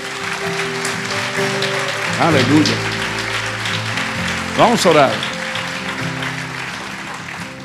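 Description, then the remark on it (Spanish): An audience claps steadily throughout as applause to the Lord, a dense wash of applause beneath a man speaking and held organ-like tones. “Da un aplauso al Señor por eso.”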